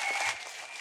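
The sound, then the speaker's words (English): A crowd at WrestleMania 12 in Anaheim claps steadily in a dense, hissy wash of applause during the opening match, moderately quiet and without any voices over it. “You're clapping for that bottle of Geritol I took before the match, brother.”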